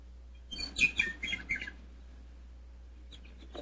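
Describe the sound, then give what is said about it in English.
Birds chirp and twitter on a sunny morning in a quick, busy burst of high tweets for about a second, then fall quiet before a few faint chirps return, over a low steady hum. “The sun was shining, the birds were singing, and there seemed every indication of it being a happy and”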